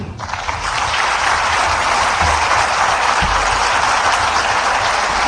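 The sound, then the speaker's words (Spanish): Sustained applause from an audience welcoming a speaker, a dense, even wash of many hands clapping that swells in within the first half second and holds steady and loud throughout, with no voices. “Así que pido por favor un aplauso para recibir a la licenciada”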